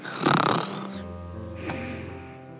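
A dragon snores loudly in its sleep: a harsh, rasping inhale gives way to a long, deep rumbling exhale with a whistling edge.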